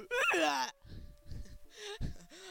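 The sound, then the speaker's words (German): A video game character lets out a loud, shrill scream lasting about half a second, followed by a few low, muffled thuds and a brief rising moan. “Hör dieser Schrei.”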